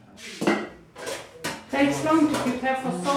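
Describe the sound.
Dishes and cutlery clatter on a counter: several sharp clinks and knocks of plates, metal utensils and pots being set down close by, with some ringing tones, while a voice talks faintly underneath.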